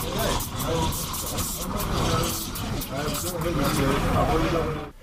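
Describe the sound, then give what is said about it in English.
An espresso machine's steam wand roars and hisses steadily for the whole stretch, loud, as it steams a freshly squeezed mixture of orange and pomegranate juice, with faint voices murmuring underneath. “We are steaming the juice now.”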